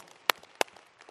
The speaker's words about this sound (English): So, can we give Jesus just a hand clap for that? That is so good. Come on.